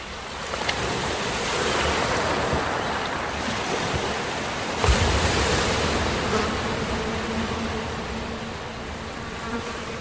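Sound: sea waves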